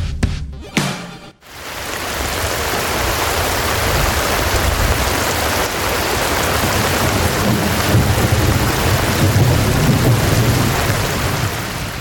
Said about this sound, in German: Ja, es regnet hier bei uns im Studio. so ein Mist. Ja, äh, natürlich nicht. Das war natürlich ein Sound äh, von Regen.